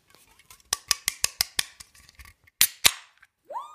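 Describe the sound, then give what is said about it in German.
A beer container is opened: a quick run of sharp clicks, two louder snapping cracks, then a short fizzing hiss of escaping gas. No one speaks. “Uh, das war gut. Die ging toll auf.”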